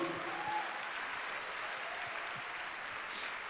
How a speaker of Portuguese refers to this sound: E se o Senhor Jesus está dizendo em Sua palavra, vamos lá, pode aplaudir.